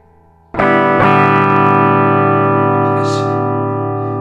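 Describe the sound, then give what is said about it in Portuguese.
A faint amplifier hum from an electric guitar still left plugged in and switched on, then a distorted chord struck twice in quick succession, ringing out loud and buzzing as it slowly fades. No one speaks. “Minha guitarra ainda está ligada.”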